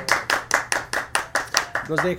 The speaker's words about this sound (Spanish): Aplausos todos, por favor. Aplausos.